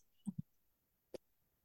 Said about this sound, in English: You're clicking record.